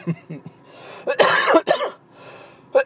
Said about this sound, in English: oh, this cough just lingers anyway